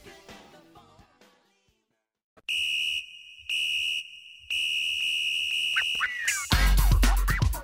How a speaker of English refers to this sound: Nothing like some sick whistles to start your song.